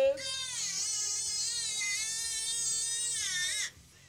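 A baby wails in one long, loud, high-pitched cry lasting several seconds, unbroken, then it cuts off abruptly with no talking underneath.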